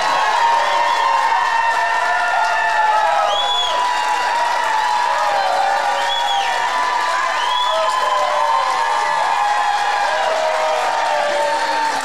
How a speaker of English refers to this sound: This cheering is obnoxious, by the way. These people are obnoxious.